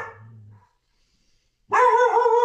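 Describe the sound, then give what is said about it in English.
A dog named Picasso barks loudly, a short low sound at the start, then after a pause of silence a sustained, harmonically rich bark or howl-like yap that holds to the end. “dog barking.”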